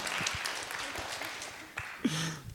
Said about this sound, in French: bonjour et, donc merci pour la première question qu'on aurait pu accueillir par un tonnerre d'applaudissements comme ça.